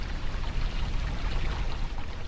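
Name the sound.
river water flowing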